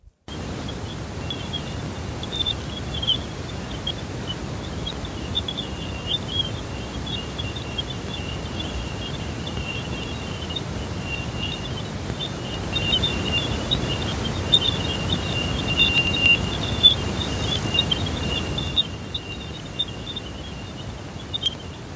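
A sonified recording of planet Jupiter, the largest planet in our solar system: a steady, rushing static hiss overlaid with a thin band of high, twittering chirps, continuous throughout and swelling slightly before cutting off near the end.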